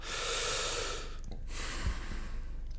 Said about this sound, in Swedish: Och så tar man ett djupt andetag och bara